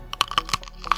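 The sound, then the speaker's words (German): A snappy Knackwurst sausage being bitten through, heard as a quick run of about six crisp, clicky crunches over one second, with no voices. “Das Geräusch natürlich zum Zerbeißen der Wurst und das hört sich so an.”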